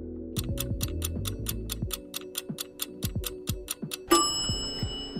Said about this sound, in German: Der Timer ist abgelaufen, das heißt Entscheidung jetzt.